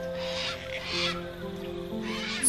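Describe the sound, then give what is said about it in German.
A cockatoo calls out with a few harsh, screechy squawks in short bursts, loud over a steady musical background. “Fröhlich ruft der Kakadu”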